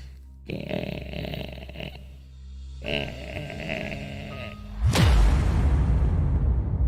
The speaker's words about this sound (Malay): aku dengar bunyi tu aku macam toleh lah apa benda bunyi ni kan rupa-rupanya bunyi benda tu berasal daripada stretcher dekat depan dewan bedah.